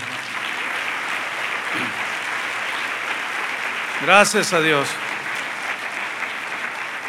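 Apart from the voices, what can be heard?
audience applause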